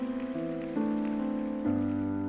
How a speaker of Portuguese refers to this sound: Comece a aplaudir a este nome, acima de todo nome, nome majestoso do Senhor. Nós te aplaudimos em nome de Jesus Cristo.